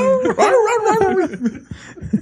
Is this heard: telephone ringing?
no